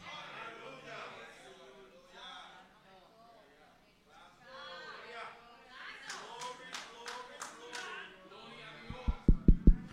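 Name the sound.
knocking on a door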